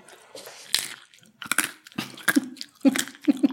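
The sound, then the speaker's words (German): Loud, crisp crunching as spicy nuts are bitten and chewed, a series of irregular sharp cracks and grinding bursts with brief pauses between bites, and a faint voiced hum mixed in. “Es ist total lustig, weil jetzt muss ich dir auf den Mund gucken, während du diese scharfen Nüsse isst.”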